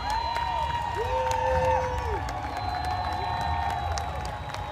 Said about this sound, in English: if you take a look at the clip, we got Seattle, Washington, their Pride Parade. Play the clip. That right there in the front is a, is a little troop of Cub Scouts, mm-hmm. Boy Scouts. Everybody's applauding that.